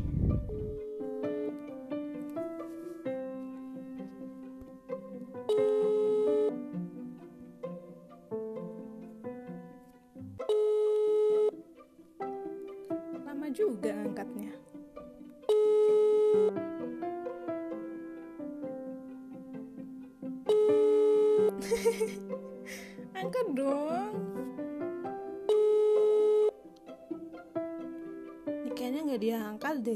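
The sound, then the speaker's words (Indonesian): A phone ringback tone for a call made late at night repeats in short bursts about every five seconds, sounding over continuous melodic background music with a voice-like tone, at a moderate, steady level. “ya udah kita telepon dulu ya semoga diangkatnya udah malam nih”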